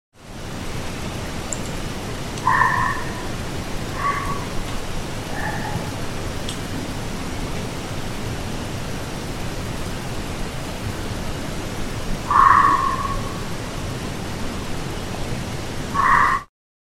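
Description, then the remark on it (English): Short, sharp fox or coyote barks ring out far away in a few scattered bursts, echoing faintly over a constant rain-like hiss, with long pauses between calls. “So, here's some weird barks, possibly foxes or coyotes.”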